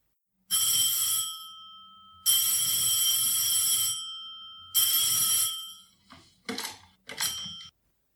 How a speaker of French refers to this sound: On entend la sonnerie du téléphone.